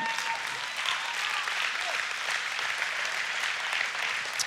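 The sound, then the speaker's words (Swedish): A crowd claps steadily throughout to thank God and express love for God, a dense, continuous patter of many hands with no pauses, moderately loud, with no clear speech rising above it. “Jag har lärt mig att, att applådera på det här sättet.”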